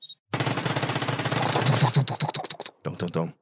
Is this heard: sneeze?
no